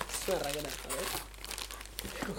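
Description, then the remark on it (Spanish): Crackly crinkling and rustling of gift wrapping paper being torn open, a continuous busy texture over a couple of seconds, with brief voices talking over it. “Yo tampoco, venga, esto para vosotros, abrirlo.”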